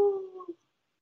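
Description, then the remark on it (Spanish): A person briefly imitates a howl with their voice: one short, fairly loud tonal cry of about half a second that holds steady, then wavers and cuts off, followed by silence. “El papá cierra el zaguán y en eso escuchan un aullido. ¡Au!”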